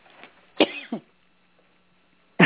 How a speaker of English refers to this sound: I'm coughing all of a sudden.